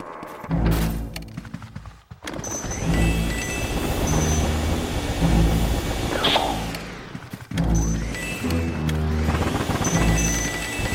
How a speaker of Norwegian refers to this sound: Hvilket spill er det vi hører gameplay fra?